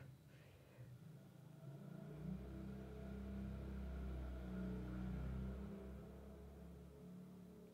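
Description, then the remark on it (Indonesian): A motorcycle engine rumbles past outside, its deep drone rising after a couple of seconds, holding steady and loud, then easing off as it moves away near the end. “Maaf ada suara motor.”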